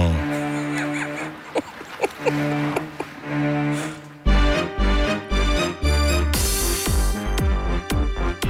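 A bouncy children's song plays clearly, with bright sung vocals over simple melody; about halfway through, a heavier beat and bass kick in, making it fuller and louder.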